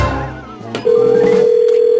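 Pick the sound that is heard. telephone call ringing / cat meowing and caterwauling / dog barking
telephone call ringing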